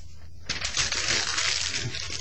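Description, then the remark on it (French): Loud crinkling and crackling of a sheet of paper about Stargate Universe being crumpled during the radio show Fantastica, starting abruptly after a brief pause and continuing steadily with small sharp crackles, no talking. “excusez, il fallait que je le fasse, ça me tentait de chiffonner le papier de Star, Stargate Universe.”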